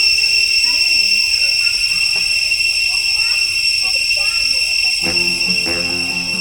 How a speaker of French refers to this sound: Dans la forêt d'Angkor, sous le soleil tropical, les cigales cambodgiennes peuvent rendre sourds.